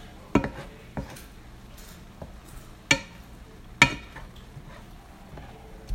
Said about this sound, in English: Uh, right now I'm frying some chicken in a pan with salt and pepper on medium heat.